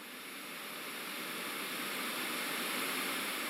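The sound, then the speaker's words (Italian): Steady white noise played by Google Assistant: a continuous, even hiss spread across all pitches, fading in slightly at the start and then holding constant at moderate level with no voices or other sounds. “Ok Google, fammi ascoltare il rumore bianco.”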